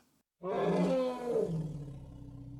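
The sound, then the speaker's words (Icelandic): A woolly mammoth roar sound effect: one loud, deep, bellowing roar that bursts in after a brief silence and trails into a rumbling growl, with no voices. “En vísindamenn hafa þó um all nokkra hríð stemta því að vekja aðra laungu horna stórvaksna tegund upp frá dauðum, loðfílinn.”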